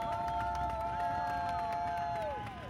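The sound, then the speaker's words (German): Spectators beside advertising boards at a race claps and cheers loudly and continuously as the riders come into the last bend, with scattered sharp claps and a sustained high tone running through the noise that slides downward near the end. “Klatschen, was das Zeug hält.”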